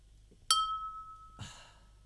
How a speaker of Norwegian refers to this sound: Nå tar jeg og trykker på plingeknappen. Bare hør.